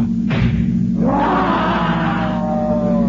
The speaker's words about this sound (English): There's a cat! A panther! Dragging her! Dragging her to the window! Its teeth fixed in her throat!